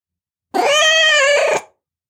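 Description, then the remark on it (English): A single drawn-out meow from Jack, a grey cat jumping up on a counter, loud, lasting about a second with a steady, slightly wavering tone before cutting off into silence. “Within seconds, a cat, grey and ugly, jumped up on the counter.”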